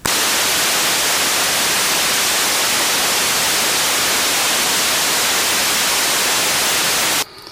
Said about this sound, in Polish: A teraz ten sam szum, ale już z wyjścia 9600, z wyjścia takiego, jakie, jakie mi jest potrzebne do odbierania transmisji cyfrowych.